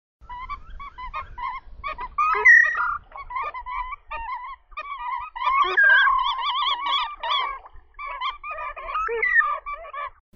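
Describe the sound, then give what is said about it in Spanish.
Hooded grebe (macá tobiano) song from a field recording on the Xeno-canto website: a steady stream of harsh, nasal, honking notes, several birds calling over one another in rapid repeated bursts for about ten seconds, with no talking. “Por lo tanto, eh, bueno, me enamoré del canto del macatoviano en principio y vamos a escucharlo un poquitito.”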